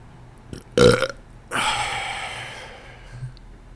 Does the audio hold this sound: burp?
yes